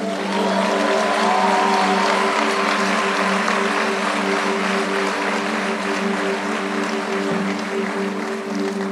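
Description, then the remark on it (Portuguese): A large standing crowd claps in praise of Jesus, a continuous, dense, sustained wash of applause, with a steady low musical drone humming underneath throughout. “Aplauda Jesus pelas nações.”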